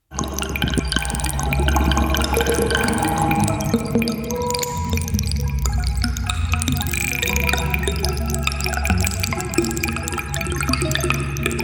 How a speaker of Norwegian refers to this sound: Kjenner du det igjen? Er det leddgreiene? Er det det? Dette er altså lyden av dine ledd. det var jo musikk, jo. Ja, det er musikk lagd på